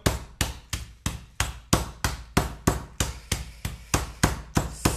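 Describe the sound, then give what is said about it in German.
A meat mallet pounds chicken breast somewhat flatter, but not as flat as a schnitzel, so it can be cut into pieces: about fifteen loud thuds in a steady rhythm of roughly three per second, with no talking. “und klopfst dieses Fleisch mal ein bisschen platter, damit du ein bisschen flächige äh, Fläche hast um ne? dann daraus Stücke zu schneiden, aber nicht zu flach wie, flach wie ein Schnitzel.”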